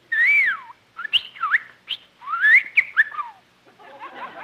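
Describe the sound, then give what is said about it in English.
A bird called Bertie whistles and chirps: a few sliding, swooping whistles broken by quick sharp chirps, fairly loud and clear, with a softer twittery flutter at the end and no talking. “Say, you're a smart bird.”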